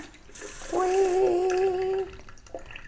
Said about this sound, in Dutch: Ik ga koffie maken en eerst ga ik heet water in de uh, eh, gootsteen doen en dan hoor je boem. Maar nou, ah, dat was een zachte boem. Want mijn, eh, eh, hoe heet dat? Wasbak die zet uit door het hete water.